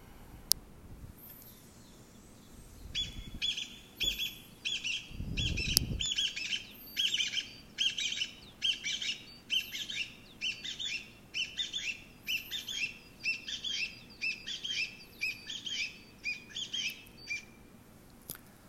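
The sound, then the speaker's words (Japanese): A Chinese bamboo partridge, a relative of the pheasant, calls loudly and insistently, repeating a ringing, rhythmic phrase over and over in a steady run of about a dozen bursts, with faint outdoor ambience behind it. The call is rendered in Japanese as "chotto koi, chotto koi". “これはですね、キジの仲間なんですね。あの桃太郎に出てくる記事ですけども記事の仲間の古樹慶という通りです古樹慶はいで、えー、これはですね聞きなし、まあ、人の言葉に置き換えたものを言うとですね、えー、ちょっと来いちょっと来いって言ってるように聞こえる”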